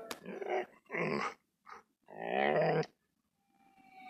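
A dog lets out a few short bursts of throaty growling mixed with whimpering whines, separated by brief pauses, before falling quiet with faint background noise.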